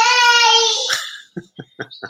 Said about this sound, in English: so, no, and, my, my daughter's heavy on uh, on Creighton, by the way, so that, that's why she's yelling at me right now.